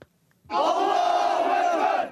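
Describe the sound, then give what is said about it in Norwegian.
A large crowd of demonstrators in Istanbul shouts "God is great" loudly in unison, protesting the Turkish newspaper Cumhuriyet's publication of Charlie Hebdo cartoons. It is a dense, sustained roar of many voices that starts abruptly and holds steady for about a second and a half before easing off. “Gud er stor, roper en gruppe demonstranter i Istanbul.”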